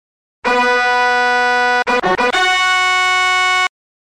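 A loud, drawn-out groaning creak of a lowering drawbridge, steady and tonal, broken midway by a few quick stuttering jolts before it resumes and stops abruptly.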